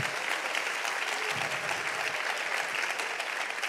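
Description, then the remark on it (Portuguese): An audience applauds steadily in the name of Jesus, a dense wash of many hands clapping at once, sustained and fairly loud throughout with no voices standing out. “Aplauda ele aí, querido, em nome de Jesus.”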